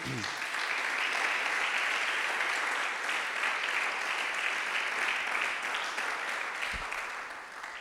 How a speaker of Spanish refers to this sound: Dele otro aplauso al Señor, hermano.